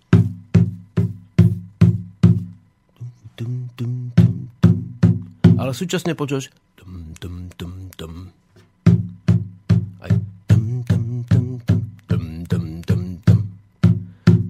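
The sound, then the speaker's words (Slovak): A drum with a skin membrane is struck over and over in a steady, quick rhythm, each hit leaving a low, humming ring with overtones, and a man speaks briefly in the middle. “že ten bubon je, vidíš, tiež nie melodický, teda harmonický nástroj,”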